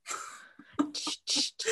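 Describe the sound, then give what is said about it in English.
A breathy sequence of sharp gasping inhales and short huffs, like a sneeze building up and then fizzling out without ever arriving. No one speaks. “Sorry, I thought I was gonna sneeze or burp really oh, loud, but I didn't.”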